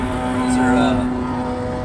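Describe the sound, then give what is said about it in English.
Loud, droning engine roar from a couple of motorcycles going by, swelling briefly as they pass and then holding a steady, buzzing growl. “Those are, uh, those are pretty loud for some, or for a couple motorcycles.”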